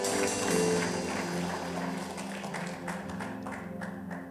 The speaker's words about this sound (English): Give the Lord a good clap of offering.